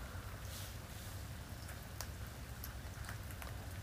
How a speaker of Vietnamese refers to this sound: mọi người có nghe thấy tiếng mưa không không liên quan lắm nhưng mà nếu mọi người đang nghe thấy tiếng kiểu uh, giả dích giả dích thì đó là tiếng mưa mình mở ban công và mình ngồi ở uh, mở cửa ban công và mình ngồi ngay ở gần cửa